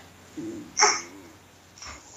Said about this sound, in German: Deshalb ist dann auch im Hintergrund ein, ein Baby zu hören.